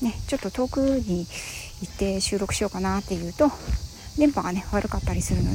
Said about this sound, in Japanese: 今ね私は外で収録をしております歩きながらなので、えーと、セミの声がねちょっとワンワン入ったりしていると思います